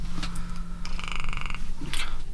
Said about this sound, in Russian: Да, короче, только что услышал дрель. Может быть, такое что на записи будет дрель. Я просто всех слушателей предупреждаю, будьте к этому готовы.